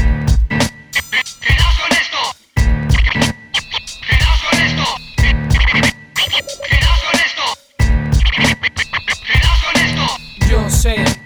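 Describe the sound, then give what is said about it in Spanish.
A loud hip-hop beat with heavy bass hits and choppy, stuttering breaks, with what sounds like turntable scratching cutting in and out over the rhythm. No one talks over it. “Mm, en lo que escuchamos una canción, lo confirmo.”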